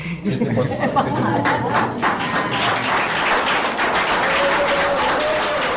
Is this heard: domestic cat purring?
no